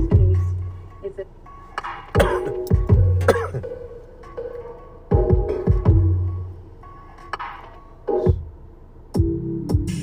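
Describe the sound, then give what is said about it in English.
A run of harsh, raspy smoker's coughs and throat clearing, loud, coming in several heavy bursts with short gaps between them. “my bad. Smoker's cough.”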